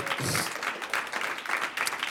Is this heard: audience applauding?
yes